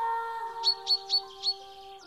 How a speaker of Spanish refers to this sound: Un día, la madre de Nilu escuchó piar en la habitación de la niña. ¿No tendrás un pájaro, Nilu? No, mamá, es gato. El gatito hizo pío pío.